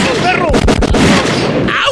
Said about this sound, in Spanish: Y se armaron los balazos de